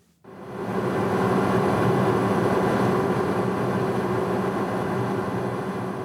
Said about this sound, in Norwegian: Det er en lang flytur i helikopter nærmere 300 km først over det veldige deltaet til Europas største elv Volga, og så over det litt gulgrå Kaspiske hav, før endelig Filanovskij-feltet dukker opp.